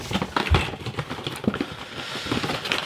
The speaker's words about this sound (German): jetzt müssen wir da die Schachtel aufmachen, ne? die dabei liegt. Da sind die, die, die Pots drin. Da sind, dann die, da sind dann die Pots drin, genau.